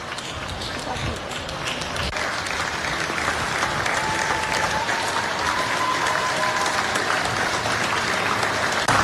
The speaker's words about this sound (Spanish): a través de ella se planificó un acto colectivo, en el que los italianos desde sus balcones aplaudieron por varios minutos el trabajo de los médicos y enfermeras para combatir el COVID-19.